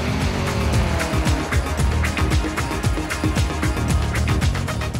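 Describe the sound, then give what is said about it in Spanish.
A fully functional scale prototype of the Maya car drives steadily. It was designed by students of the Instituto Politécnico Nacional. Its motor whines up and down in repeated pitch sweeps over a dense rattling clatter of quick clicks, with no talking. “Actualmente cuentan con un prototipo a escala perfectamente funcional.”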